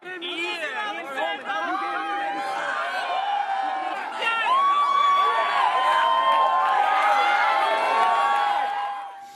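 A young concert crowd in the USA cheers and shouts continuously as a concert ends, high-pitched screams and excited chatter swelling louder partway through and staying loud before easing at the end.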